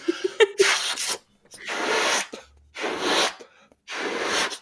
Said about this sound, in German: dann bläst man seinen Ernst, den, der sitzt nämlich in der, in der Lunge fest, und den bläst man dann aus sich heraus in den Luftballon hinein. Das geht um, klingt ungefähr so.